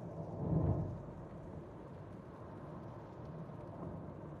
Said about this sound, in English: sorry guys, I'm hitting some rain.